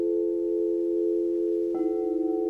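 A crystal singing bowl rings with a steady, pure sustained tone, then a second bowl is struck partway through, adding a higher shimmering pitch that blends and gently pulses with the first.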